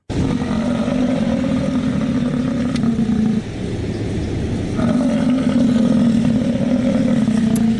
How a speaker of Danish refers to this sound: så troede jeg, at det var en, øh, en løve eller en bjørn måske, der var blevet lidt øh, småsur. Men nej, det er faktisk en bisonokse, der kommunikerer og snakker lidt på den her måde.